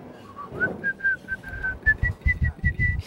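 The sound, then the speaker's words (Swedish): Someone whistles a short, simple children's song tune: a string of clear, steady notes rising and falling, with soft low thumps and breathy noise underneath. “Nej, jag tror han visslar den här.”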